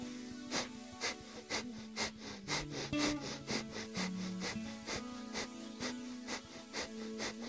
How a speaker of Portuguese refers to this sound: Foco nesse ritmo de respiração. Pode acelerar um pouco se quiser.